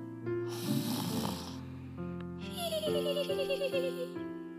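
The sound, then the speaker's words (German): A plump reindeer sleeping on a bed of clouds snores in long, rumbling breaths, then a wavering, whinnying snore with a warbling tone joins in, loud and steady with no talking. “Merle öffnete ihre Augen und sah ein dickliches, schlafendes Rentier auf einem Wolkenbett.”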